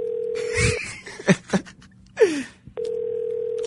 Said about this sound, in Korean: 신호 가나요? 네, 신호 가고 있네요.